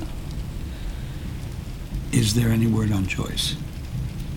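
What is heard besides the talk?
rain with thunder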